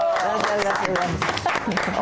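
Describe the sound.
Steady applause from a small audience fills the two seconds at a fairly loud level, with voices talking and calling out over the clapping.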